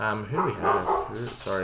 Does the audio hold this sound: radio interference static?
no